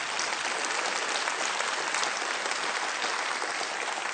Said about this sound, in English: And some of you are like, really? Clapping? Like, you really believe this?